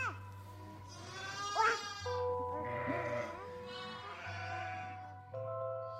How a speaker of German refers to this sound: Das Schaf blöket. Sie hat Merkmal gefunden. Dies Blöken, das ihr am stärksten Eindruck macht, das hervorsprang, am tiefsten eindrang, bleibt ihr.